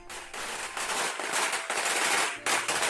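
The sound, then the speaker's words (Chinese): A rapid, continuous string of firecrackers crackling and popping loudly on a street, dense sharp bursts overlapping into a steady roar for the whole stretch, with a brief dip before another surge of pops. “呃，吵死年了，是鞭炮！”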